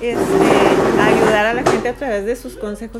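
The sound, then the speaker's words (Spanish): A chair scrapes across the floor in one long, loud grinding drag lasting over a second, with a voice talking over it and continuing after the noise stops. “esa fue una silla arrastrándose.”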